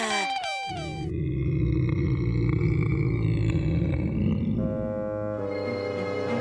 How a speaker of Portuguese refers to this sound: Tinham-se escondido em sítios diferentes. A certa altura, soaram roncos esquisitíssimos. Quem seria?